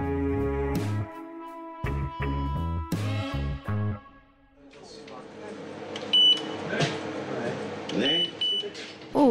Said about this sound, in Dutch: dat is de eh, metaaldetector eh, van de Oostvaarderskliniek. Dus als je daar binnenkomt, dan is het eerste wat je tegenkomt, net als op Schiphol, ja, eigenlijk je mag ook bijvoorbeeld geen mobiele telefoons eh, naar binnen nemen.